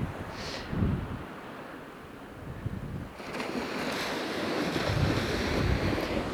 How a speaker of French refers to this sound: Je suis sur la côte normande, euh, au bord de la plage du débarquement euh, d'Omaha Beach. Il y a beaucoup, beaucoup de vent.